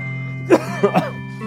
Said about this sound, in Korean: 아, 이게 그렇게 코로나 때문에 장기침이 심하네요.